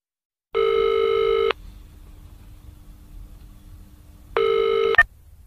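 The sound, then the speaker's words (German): A telephone line rings twice while calling a computer company, Computer World, each buzzing ring lasting about a second with a long quiet gap between, then a sharp click cuts the second ring short as the call connects. “Sie rufen bei einer Computerfirma an und hören Folgendes.”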